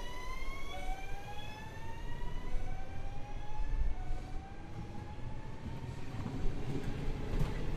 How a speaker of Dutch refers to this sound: En ik zit nu in de sprinter waar ik ongeveer een uurtje lang in moet zitten.